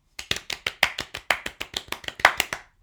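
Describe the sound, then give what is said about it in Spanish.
A short burst of steady, rapid hand clapping introducing a show's first segment, "Cocinita Service": about a dozen and a half sharp claps in even rhythm, fairly loud and alone with no talking, ending abruptly. “Aplausos de nuevo.”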